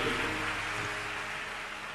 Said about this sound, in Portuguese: Deixa a chuva.